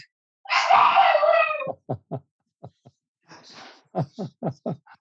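Dogs whining after being shut out: a long, high, wavering whine followed by a run of short, sharp yelps, a brief pause, then a breathy cry and another quick burst of whimpering yelps.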